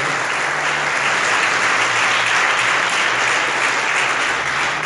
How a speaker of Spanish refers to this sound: Denle la aplauso al Señor, por favor, en esta noche.